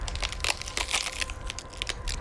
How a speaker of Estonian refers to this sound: ei pidanud tolle reieluud survele vastu ning katkesid jubeda raginaga.